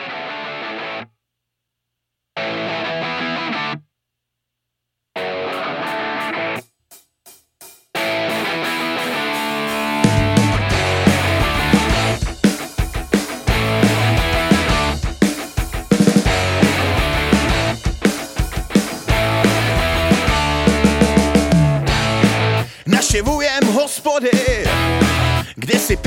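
A band's rock song with distorted guitars opens in choppy stop-start bursts, then the full band with heavy bass and drums kicks in and plays on loudly and steadily.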